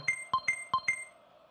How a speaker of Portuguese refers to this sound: Gira no placar, você ouviu o sininho.